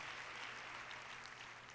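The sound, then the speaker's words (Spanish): An audience at a church service claps together in a dense, steady wash of applause that holds an even level throughout, with no voices rising above it. “Este aplauso, déselo más fuerte.”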